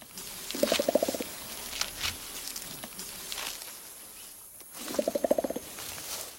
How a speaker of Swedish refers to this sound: Men, hör och häpna här. Så här låter det när en gorilla slår sig på bröstet.